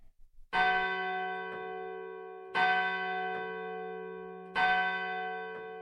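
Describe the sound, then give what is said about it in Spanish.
A church bell strikes the hour with three slow, evenly spaced chimes, each resonant toll ringing on and blending into the next. No one speaks. “En el momento en que se oían las campanadas de la hora, golpearon a la puerta de la calle.”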